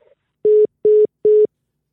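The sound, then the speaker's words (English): A phone line tone after a dropped call: three loud, identical beeps at a steady even pace, each about a fifth of a second, with nothing else audible. “Uh oh, they cut Mike off. Maybe his phone died.”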